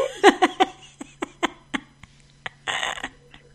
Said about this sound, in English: listen to how loud that fart